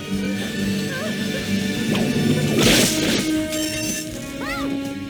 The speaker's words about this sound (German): Vor allem soll es uns aber zeigen, dass die Regie Peitschenhieb.mp3 vorbereitet hat.